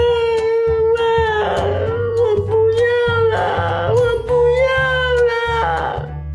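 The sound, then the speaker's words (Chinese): Loud, drawn-out wailing cries from a voice imitating a crying princess in a children's story, sobbing hard with the crying growing louder and louder, the high pitch wavering and swelling in long continuous bursts over a steady low background tone. “爱哭公主坐着哭，躺着哭，趴着哭，滚来滚去，一直哭，哭声越来越大。”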